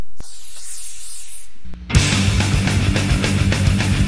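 A steady hiss of hair spray from an aerosol can lasts just over a second, fairly loud, then stops; after a short pause, loud rock music kicks in.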